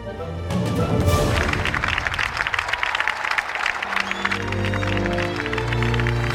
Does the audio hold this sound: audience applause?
yes